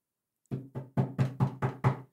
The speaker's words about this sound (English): there's security and everything, so I get a tap on my door.